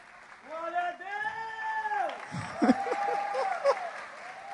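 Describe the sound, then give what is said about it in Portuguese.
An audience applauds the Lord steadily for several seconds, a dense wash of clapping with voices calling out and speaking over it. “Pode aplaudir o senhor.”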